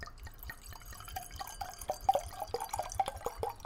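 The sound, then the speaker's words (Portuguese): Water pours into a glass, a steady run of bubbly, gurgling splashes and drips lasting a few seconds, with no one talking. “Pegamos realmente uma aguinha dessa vez, né?”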